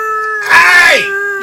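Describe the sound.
A person imitates a wolf howl: one sustained vocal tone that swells louder and rougher in the middle, slides downward, then settles back into a steady hum.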